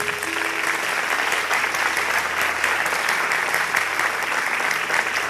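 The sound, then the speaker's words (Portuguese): Sustained applause from a large audience at a Christian worship service, a dense, steady wash of clapping hands that stays loud and even throughout, with no break and no talking standing out above it. “Forte aplauso para ele.”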